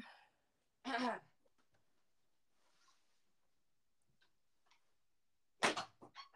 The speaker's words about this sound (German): Boah, boah, da ist gefühlt die Tür eingekracht.